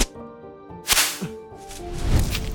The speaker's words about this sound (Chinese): 耶稣背着走，一路上这些官兵们用鞭子鞭打他。